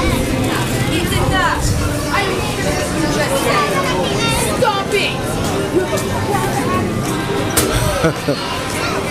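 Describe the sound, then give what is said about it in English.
A mother's raised, scolding voice at a young man carries through a busy outdoor crowd in the rain on a Tuesday at almost 7 in the evening, her sharp tones rising over steady, continuous background chatter and street noise. “Somebody's getting yelled at. Young man. His mom was giving him what for? as you can hear.”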